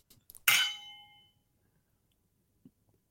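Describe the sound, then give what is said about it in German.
A single bright clink of beer glasses knocked together in a toast, ringing out and fading over about a second, preceded by a few faint taps and followed by a soft thud. “So, ich sag Prost. mal, Prost.”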